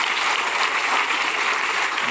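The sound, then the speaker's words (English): An audience claps for the Lord together in a steady, dense wash of applause, loud and unbroken throughout, with no individual claps standing out and no voices heard. “Come on, somebody give the Lord a hand clap.”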